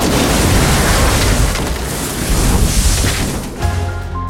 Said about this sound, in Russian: Самолет левым крылом цепляет деревья, переворачивается и на скорости 300 км в час падает в лес.